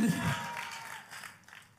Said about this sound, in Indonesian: Kayaknya perlu lihat kiri kanan katakan, masih nggak dosa tepuk tangan, saudaraku.